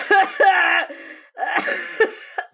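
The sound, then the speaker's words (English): A person who is sick coughs several times in two loud, raspy bursts separated by a brief pause, each cough rough and strained with a hoarse, voiced edge. “oh, that was a real cough.”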